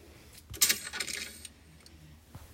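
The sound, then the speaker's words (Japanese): The chiller drawer of a home refrigerator slides open with a bright, rattling clatter of plastic and glass lasting about a second, followed by a softer thud as it settles; clear, no voices. “自分家の冷蔵庫のチルドを開ける時の音をキャッチ、キャッチないわ、なんだっけ。”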